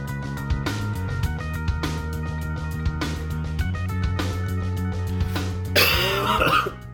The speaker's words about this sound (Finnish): Anteeksi. Hieno yskäsy siihen heti alkuun.